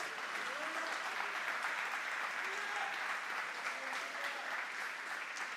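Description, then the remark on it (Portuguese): An audience claps loudly and steadily for Jesus, a dense wash of applause, with faint voices and cheers rising underneath. “Diga glória a Deus, aplauda bem forte a Jesus.”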